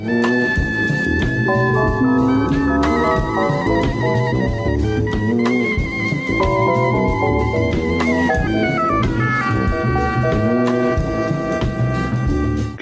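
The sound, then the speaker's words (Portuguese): Afrofuturist jazz plays steadily at a loud, even level, with sustained horn-like tones, shifting chords and a rhythmic pulse underneath. No one speaks over the music. “Por sinal, esse som que você está ouvindo ao fundo é dele,”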